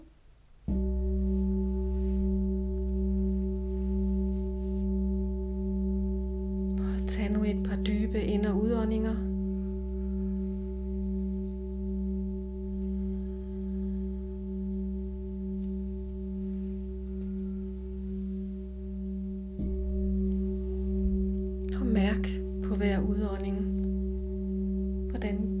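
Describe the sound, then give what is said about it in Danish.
A large singing bowl is struck, ringing with a deep, steady hum and bright overtones; it's struck again later to renew the tone. A soft voice speaks over the sustained resonance. “Og om et øjeblik vil jeg spille på den store skål. Og det gør jeg nu.”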